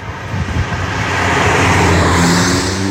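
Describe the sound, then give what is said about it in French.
A simulated combustion engine note from an Abarth 500 electric car, a sound that can be deactivated: a loud droning hum that steadily builds and rises in pitch like an accelerating petrol engine, with no voices. “C'est un peu la première voiture électrique qui fait un bruit de voiture thermique et il peut bien sûr se désactiver pour conserver une des qualités premières des voitures électriques, le silence”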